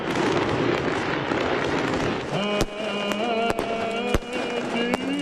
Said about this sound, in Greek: Πυροτεχνήματα και πυρσί σε πλεούμενα μετέτρεψαν τη νύχτα σε μέρα.